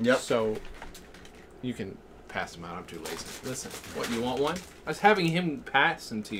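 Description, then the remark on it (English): Crinkly plastic packaging rustles and crackles in short bursts as a package of Oreo cookies is opened, mostly under people talking back and forth. “It's the noise of Oreo cookies.”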